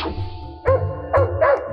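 A dog barks three times in quick succession, loud, each bark a short sharp burst with a slightly uneven rhythm, and no one speaking.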